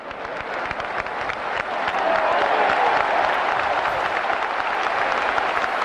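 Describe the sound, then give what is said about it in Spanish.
Sustained applause from many hands dedicated to the mayorales who tend the fighting bulls, a dense crackle of claps that swells slightly after the first couple of seconds and holds steady and loud, with no voices on top. “Y más aplausos.”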